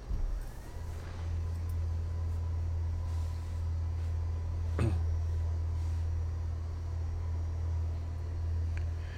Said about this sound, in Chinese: 可能会有个马达的声音，我把桌子升高一下。